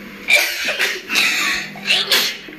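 Several sharp, breathy sneezes in quick succession, fairly loud, each a sudden hissing burst with brief pauses between and no talking.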